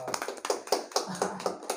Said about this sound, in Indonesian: Hey. Ah, tepuk tangan dong.